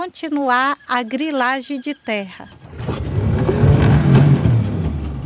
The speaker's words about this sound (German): Mit dem Motorboot geht es über den Rio Jassi Paraná.